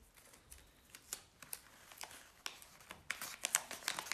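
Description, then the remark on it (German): Crinkling and rustling of paper with sharp little snaps and scrapes as a gift is wrapped in paper with Tesafilm tape and cheap scissors, coming in irregular bursts that grow busier toward the end. “So. Mein erstes Geschenk ist eingepackt.”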